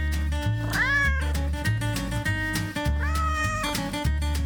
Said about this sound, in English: Meow, meow.